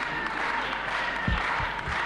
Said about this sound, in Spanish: Aplausos para el diputado del Partido Liberal.